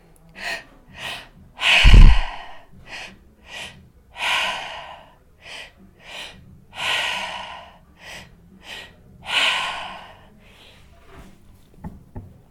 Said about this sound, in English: you're going to do a three part breath so it's a two part inhale one part exhale and you're going to continue for the duration of the music so it's going to sound like this